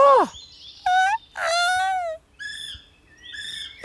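A kiwi bird calls in a series of five shrill, harmonic whistles, some rising and some sliding down, each short and loud, with brief gaps between and no talking.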